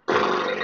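A dog's growl, one short rough burst lasting under a second, loud, starting abruptly and holding steady with a harsh, raspy texture. No other sounds or talking.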